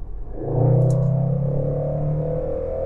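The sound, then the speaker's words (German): A Range Rover SVR car engine revs loudly, a deep droning roar that swells up and holds for about two seconds before easing back down, with no talking. “Naja, ah ich meine, der Range Rover ist natürlich, der hat ja richtig Qualm hier, der SVR. Der ist natürlich nicht so leise wie der Tesla.”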